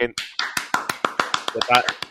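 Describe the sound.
Sharp hand claps ring out in a quick, uneven rhythm, about a dozen in two seconds, while people talk over them at a fairly loud level.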